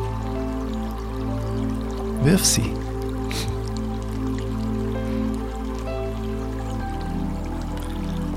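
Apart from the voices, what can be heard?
gently flowing river water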